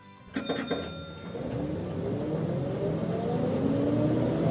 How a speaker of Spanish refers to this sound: el autobús se detiene en la London Waterloo, que es una estación de tren.